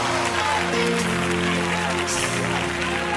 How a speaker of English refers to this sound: Can somebody clap your hands and bless God?